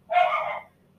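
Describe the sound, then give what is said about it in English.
A single sharp bark from the speaker's dog, lasting about half a second before fading into quiet. “that's my dog's, sorry”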